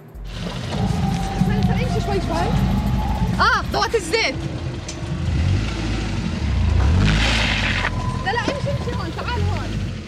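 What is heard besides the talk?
race car engine revving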